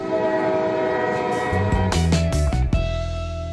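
A train horn blares in a steady, loud chord while the train rumbles past, with a burst of rushing, clattering noise partway through. No one speaks.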